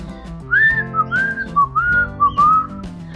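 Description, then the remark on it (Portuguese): A person whistles an imitation of a small bird singing from up in a tree, a string of short rising and falling phrases over about three seconds, clear, with a soft backing accompaniment underneath. “Um gato, muito danado, estava passeando quando de repente escutou lá de cima de uma árvore um passarinho cantando assim.”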